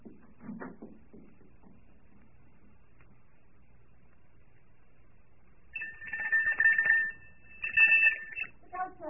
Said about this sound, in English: Ring the doorbell. I'll hear it. Ring it loud.